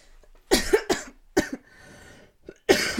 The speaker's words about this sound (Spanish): No, no, no, las, las, toses, las toses de cáncer Ay, no, por favor.